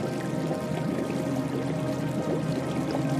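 Continuous splashing and bubbling water from a hot geyser, steady and dense without breaks, at moderate volume, with no voices present.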